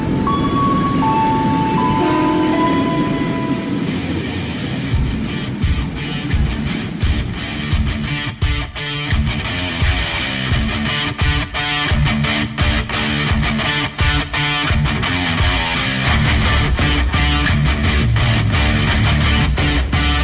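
Loud, steady rumble of a train ride, with dense rattling and a rapid series of sharp clacks from the wheels and carriages running throughout, no voices.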